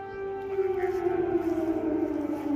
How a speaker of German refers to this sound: Und gleichzeitig heulen noch immer fast jeden Tag in Kiew die Sirenen zum Luftalarm auf.